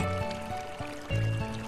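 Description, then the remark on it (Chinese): Water sloshes and splashes in a steady, continuous wash, growing a little louder about two-thirds through, with low sustained musical tones shifting pitch underneath. “他猛地扑过去，星星就伴着水花四溅。”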